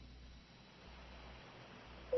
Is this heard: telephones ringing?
yes